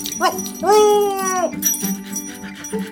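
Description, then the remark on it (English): A big orange dog named Senator Something gives a drawn-out, high whining bark lasting nearly a second, preceded by a short yip, fairly loud, with faint background sounds after. “I get some help from a big orange dog named Senator Something.”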